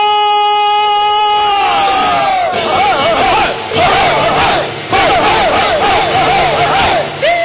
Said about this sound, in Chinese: 锣鼓各家二十面，怎么乱打的闹闹哄哄？要大喊大叫的出县城，越热闹越好。